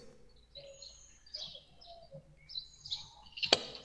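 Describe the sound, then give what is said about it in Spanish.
Birds chirp softly outdoors in a park in scattered, overlapping calls, over a faint low background hum, with one sharp click near the end. “Las aves, los árboles. El viento.”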